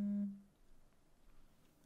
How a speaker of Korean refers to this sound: 깊이 잠이 들어있는 한 남자에게 전화가 걸려오고 있습니다. 이 남자는 걸려오는 전화에 대해 어떤 선택을 하고 그것은 어떤 결과를 가져오게 될까요?